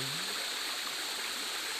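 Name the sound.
flowing river stream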